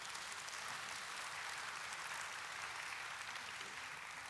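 A church audience applauds steadily to thank God for the pastor's teaching, a dense, even patter of many hands clapping together for several seconds, with no voices standing out.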